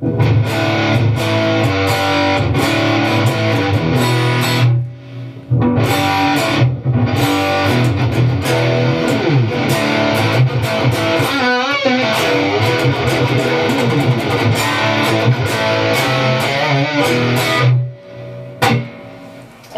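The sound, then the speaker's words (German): Heavily distorted high-gain electric guitar through a 5150 amp profile with some reverb, playing chugging riffs and sustained chords, loud, with brief pauses between phrases and no talking. “Genau, es ist jetzt ein äh, 5150-Profil äh, hier gerade, was wir hören. Wo wir noch mehr, wo wir mehr Gain natürlich noch brauchen.”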